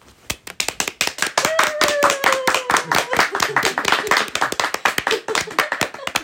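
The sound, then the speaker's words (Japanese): Sustained applause from a small group at a stall event held each spring, with many quick hand claps overlapping in a dense, steady patter, fairly loud, with faint voices under it. “はい拍手が長いところで”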